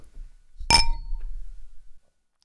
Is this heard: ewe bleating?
no